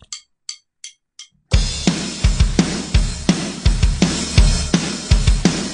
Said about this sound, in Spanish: un efecto que se solía usar mucho en los 80s, que es un reverb que se corta. Se llama eh, gated reverb.